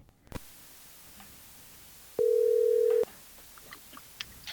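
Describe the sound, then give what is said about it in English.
A single steady ringback tone sounds for about a second as a phone call is placed to the speaker's sister, over a quiet, faintly crackly line, followed by light clicks and ticks, with no one speaking. “Let me see if I can get her on the phone.”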